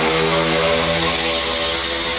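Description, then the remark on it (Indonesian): A motorcycle engine drones loudly, a steady buzzing roar with a rough harmonic hum that holds throughout without fading. No one speaks. “dasar motor”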